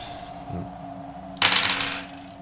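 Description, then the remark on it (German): A twenty-sided die clatters across a hard tabletop in one short, rattling burst, fairly loud, then settles; a quiet steady hum runs underneath, with no one talking. “Ich würfel immer richtig gut mit dem Sechser, aber das ist ja der 20er.”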